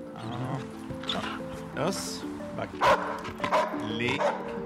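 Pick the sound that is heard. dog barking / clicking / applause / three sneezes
dog barking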